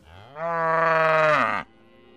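cow mooing

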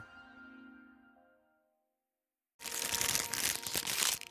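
plastic bag crinkling

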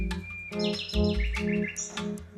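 nightingale song

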